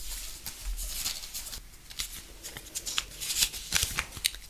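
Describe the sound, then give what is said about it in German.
Dry, papery rustling and crinkling, with a run of quick soft flicks and shuffles as two slips of paper, each with a name written on it, are mixed and one is drawn, no voices. “Ich habe wieder zwei Zettel dabei, einen mit deinem Namen und einen mit meinem.”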